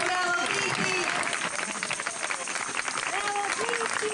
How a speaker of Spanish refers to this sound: que le dimos un aplauso bien fuerte.